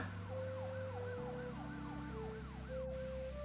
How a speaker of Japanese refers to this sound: 緊急車両の通る音がたくさんしていました